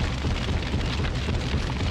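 A MOAB bomb explosion sound effect: a thick, continuous roar of rumbling blast noise with heavy bass, holding loud and steady for about two seconds without any voices.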